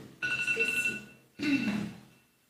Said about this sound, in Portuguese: É o meu. problema. É um alarme na minha bolsa. Desculpa.